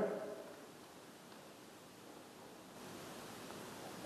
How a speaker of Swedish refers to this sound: 100 kronor fast den är ihopskrynklad